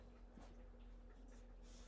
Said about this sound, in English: As my dog in the background, that's probably what you can hear is uh, snuffling around.